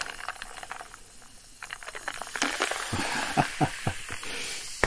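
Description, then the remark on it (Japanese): Strong carbonated water from a 490 ml Co-op brand bottle pours with a steady hiss and fizz, crackling bubbles rising in a dense wash that grows busier and louder toward the end, with no voices. “強炭酸水なんだけど、すごいね。”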